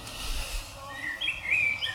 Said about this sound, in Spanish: Los gorriones desde los árboles se reían de él, los gorriones son con frecuencia un poco tontos.